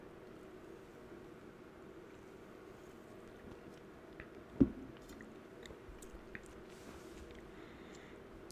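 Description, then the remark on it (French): Someone quietly sips cola, with faint wet mouth and swallowing sounds over a low hum and one sharper knock or gulp midway. No one speaks. “Bref, je vais boire un coup de coca on va passer à ce bon vieux sujet du jour.”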